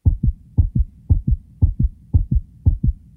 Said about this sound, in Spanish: Un corazón enamorado suena igual que un corazón celado, indignado y nervioso.